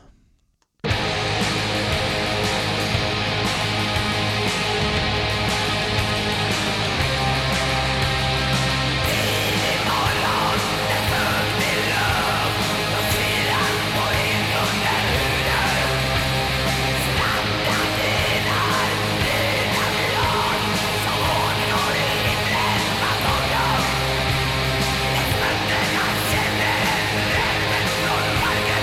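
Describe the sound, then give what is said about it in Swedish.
A loud, treble-heavy extreme metal song kicks in after a brief silence, with dense distorted guitars, pounding drums and harsh screamed vocals, and very little bass weight. “Det är en famn diskant i den här produktionen. Och inga …-baskaggar så långt örat kan nå.”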